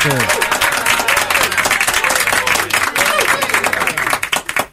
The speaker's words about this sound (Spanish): De gracias a nuestros aplaudidores que vienen todos los miércoles a hacer nada más que aplaudir. Muchas gracias. Eh, ya, aplauden, cuando quieren. Pero está bien, está bien, para eso le pagamos, para que aplaudan.